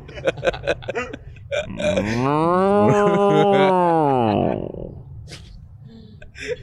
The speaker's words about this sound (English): I'm looking up bison sound effects. I want to know what a bison sounds like. Oh! no, it goes. Oh! no, it's moo.